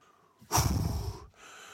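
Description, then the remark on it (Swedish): A heavy, breathy gasp, one loud rushing breath lasting under a second, then quieter breathing that trails on as someone catches their breath. “Måste bara Måste bara andas lite.”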